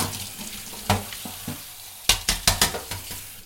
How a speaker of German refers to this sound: Ich mache erstmal die Zwiebeln. Mhm. Hier klein geschnitten. Genau. Anbraten ganz normal.